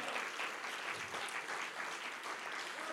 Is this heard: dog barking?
no